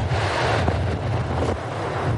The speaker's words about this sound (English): Crashing ashore before dawn along Florida's east coast, Hurricane Nicole. CBS's Elise Preston reports it was a Category 1 when it hit just south of Vero Beach and quickly weakened to a tropical storm.